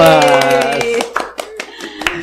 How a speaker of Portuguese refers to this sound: Palmas!